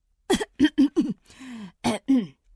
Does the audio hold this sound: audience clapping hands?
no